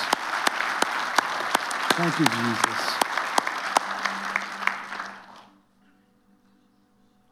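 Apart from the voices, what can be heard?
audience applause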